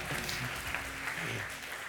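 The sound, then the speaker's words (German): A crowd applauds steadily, a dense, even wash of many hands clapping at once without pause, loud and sustained throughout. “Einen großen Applaus einmal.”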